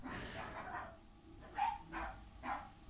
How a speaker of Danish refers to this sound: og nu er der en eller anden hund, der gør.